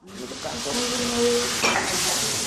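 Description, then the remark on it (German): Grasshoppers sizzle in a hot frying pan during a cooking class, a steady crackling hiss that holds for the whole moment, with a faint stirring scrape partway through. “beugt sich über die Pfanne mit den Heuschrecken und schnuppert.”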